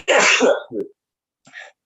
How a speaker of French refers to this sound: Éternuez, puis ça va en micro. Désolé.